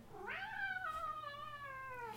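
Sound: cat meowing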